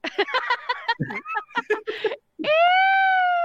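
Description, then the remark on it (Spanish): The new Intel audio logo jingle: a brief, clean electronic sting that ends on a bright, sustained harmonic tone held for about a second, following a stretch of busy, choppy voice-like sounds. “Ahí está el nuevo Intel nuevo, muy breve, muy sencillo, muy limpio.”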